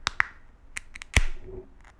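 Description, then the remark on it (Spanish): A beer can's nitrogen widget (capsule) releases nitrogen as the can is opened, making the beer foam. It gives a series of sharp metallic clicks and pops, the loudest followed by a brief, soft fizzing hiss that fades out. No one speaks. “Lo que escucharon el fue la capsulita.”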